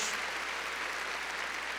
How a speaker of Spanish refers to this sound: A ver, démosle palmas fuertes ahí a nuestro Señor. Gloria a Dios.